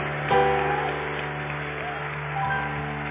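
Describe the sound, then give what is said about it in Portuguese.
An audience applauds Jesus loudly in a dense, continuous wash of clapping over sustained musical tones, swelling briefly near the start and again toward the end. “Aplauda ele bem forte, dele um brado de júbilo.”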